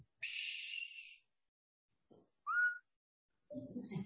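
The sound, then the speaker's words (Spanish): A catcall whistle in two parts: a long, loud high note, then after a pause a short upward-sliding whistle, followed by a brief low mumble of voice. “¿qué me miras y qué me chiflas y qué me dices?”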